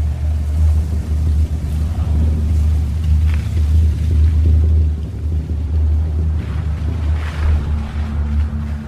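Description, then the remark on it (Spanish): A car engine rumbles steadily throughout, a deep continuous drone as a latest-model car rolls slowly into a garage while the garage gate opens, with a few faint scraping sounds over it and no talking. “El portón de una cochera se abre.”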